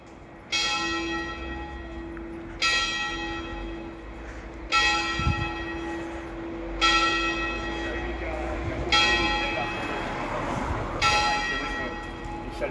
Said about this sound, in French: Entendez la belle cloche de mon beau village.